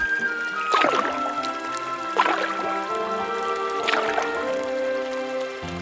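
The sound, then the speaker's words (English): Rat rowing his little boat across a river to fetch Mole, with three unhurried oar strokes splashing and swishing at an even pace, over a steady soft musical backdrop. “I will come to get you with my little boat.”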